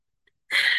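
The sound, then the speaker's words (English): A single sharp sneeze bursts out loudly after near silence, a sudden noisy blast that holds briefly at full strength. “Oh, bless you.”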